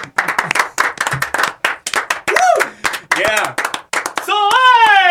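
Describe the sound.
A quick burst of close, rapid hand clapping from a small group, with voices whooping and cheering over the claps and a sustained shout at the end.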